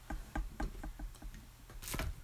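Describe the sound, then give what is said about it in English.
A steady heartbeat recording plays, a quick run of evenly spaced, muffled thumps with low rumble beneath, ending in a slightly louder, brighter thump near the close. No one speaks over it. “Let's let's hear this heartbeat one more time. You see and you hear. There is a steady rhythm.”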